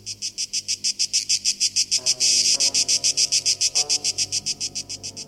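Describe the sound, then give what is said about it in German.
Cicadas sing in a fast, steady pulsing buzz, loud, each rapid pulse repeating evenly throughout with a brief swell in the middle; no voices are heard. “Durch Entspannung des Trommelfells kann zum Beispiel ein singendes Zikadenmännchen sein Gehörorgan vor Überbeanspruchung schützen.”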